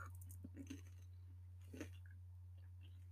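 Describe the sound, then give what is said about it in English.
Chewing of food: a few soft, moist crunching bursts scattered irregularly over a steady low electrical hum, with quiet pauses between bites and no talking. “Sorry. Mm, I hate chewing.”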